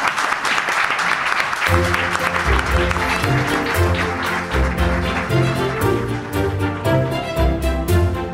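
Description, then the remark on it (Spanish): A crowd bursts into sustained, dense applause that fills the whole stretch, and after a moment a piece of music with a steady beat joins in underneath the clapping. “Ahora sí, un aplauso para”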